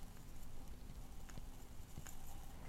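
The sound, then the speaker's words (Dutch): A few soft, gritty scrapes and light clicks as ground coffee is scooped from a coffee jar into a glass, quiet, over a steady faint background hiss. “En dan doe ik koffie in, de, glas.”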